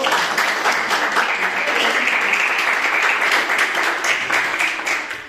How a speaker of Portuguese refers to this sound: E as palmas que adorem o nome do Senhor.